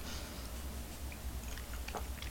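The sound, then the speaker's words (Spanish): A quiet first sip of the week's hot, bitter black coffee: soft wet slurping and lip sounds, with a brief sharper slurp near the end, over a low steady hum and no speech. “Después de este primer sorbito paso a un tema”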